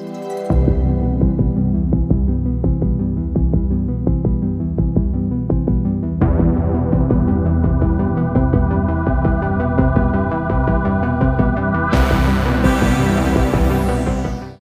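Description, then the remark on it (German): Instrumental synth soundtrack music from the TV series Stranger Things, with a steady, throbbing low pulse under sustained droning chords, building as extra layers enter midway and a bright, shimmering layer joins near the end. “Das ist der Soundtrack zu, zu Stranger Things.”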